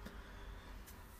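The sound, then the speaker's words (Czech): A car rumbles past outside a home, a steady low engine hum with a couple of brief soft swishes, no voices. “Miluji to auto.”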